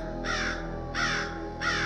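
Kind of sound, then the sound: bird, crow cawing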